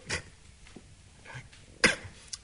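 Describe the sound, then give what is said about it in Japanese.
A performer imitates an odd, sputtering cough in a few short, separated bursts. The sharpest and loudest comes late, followed by a brief final hack, with quiet gaps in between. “それにねなんかもう朝からねもう変な咳が出てんだよ”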